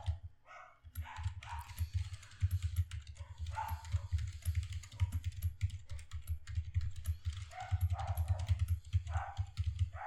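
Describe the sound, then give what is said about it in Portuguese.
Steady clatter of someone typing quickly on a computer keyboard, with dense bursts of key clicks and brief pauses, over a constant low electrical hum. “Perguntando se o, ah, o barulho do teclado fica.”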